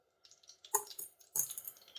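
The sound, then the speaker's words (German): A squeezed Lidl sriracha sauce bottle with a poorly working cap sputters out wet, squelching spurts in two short bursts, the second longer and more broken up, only a drop coming out, with no voices. “Nein, diese Soße hat so einen beschissenen Verschluss.”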